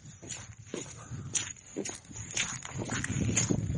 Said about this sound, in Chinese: 远处很多狗叫啊，哪来的狗啊？路上也没见过呀，这么冷还叫。二山国家森林公园呐，这么大个地方。